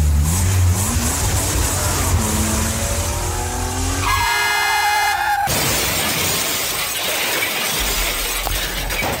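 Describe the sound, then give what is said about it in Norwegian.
A car engine revs with rising pitch as the vehicle drives. A sustained horn blares, then a loud, noisy crash of shattering glass follows. No one speaks. “så eh, får du bare lene deg tilbake og nyte hva som kun kan bli beskrevet som en, eh, en biltur, så nyt.”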